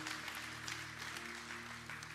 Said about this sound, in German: Richtig Applaus, ist richtig Zeit.